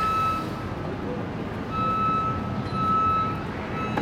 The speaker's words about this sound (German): Jetzt kommen wir an eine Grenze, wo auch das Reden schwierig wird, weil jetzt gerade der Zug neben mir hält. Aber es gibt dann auch eine Pause, wenn er aufhört.